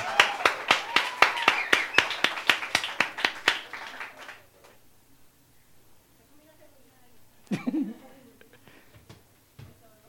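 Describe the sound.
An audience claps in a steady, rhythmic beat for about four seconds, the sharp claps fading out into near quiet before a brief voice is heard.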